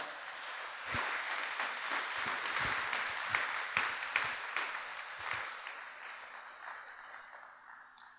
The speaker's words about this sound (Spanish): Creo que es buen momento de darle una ofrenda de palmas a Dios.